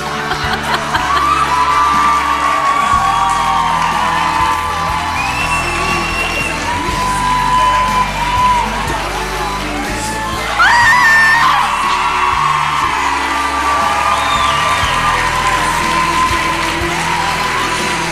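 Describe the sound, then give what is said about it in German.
A large live crowd cheers and whoops continuously, with scattered shouts and high yells rising above a dense, loud wall of applause-like noise that swells briefly near the middle. “Ihr wart ein wunder, wundervolles Publikum.”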